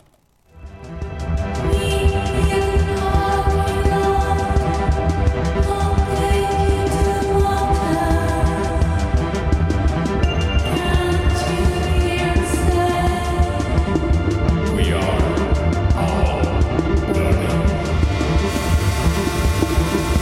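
An electronic track plays loudly and steadily after a brief quiet start, with a pulsing synth beat, deep bass and layered sustained tones running throughout.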